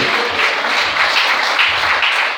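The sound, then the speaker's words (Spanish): An audience applauding the Lord together during a church service, a dense, steady wash of many hands clapping that holds at an even, fairly loud level from start to finish with no voices standing out. “Si me van el aplauso de ese Señor esta noche.”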